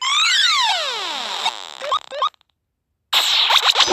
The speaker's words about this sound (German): der Alarm schon kaputt? Was? Mit einem Schlag geht der schon kaputt?